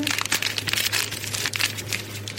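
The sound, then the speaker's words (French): A small plastic pouch from a kit is opened, with dense, continuous crinkling and crackling for a couple of seconds. A low steady hum sits underneath, and no one speaks. “Alors, j'ouvre la, petite pochette.”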